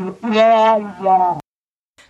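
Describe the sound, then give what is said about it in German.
A cartoon teacher's muffled, wordless wah-wah voice, like a muted horn mimicking speech, in two short warbling phrases, then silence. “Und das ist, so spricht die Lehrerin.”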